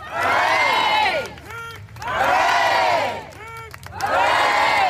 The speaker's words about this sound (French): Et il y a un peu euh, des, applaudissements timides, les gens savent pas trop comment réagir. Et là, dans la foule, il y a des gens qui commencent à euh, crier des hip hip hurrah.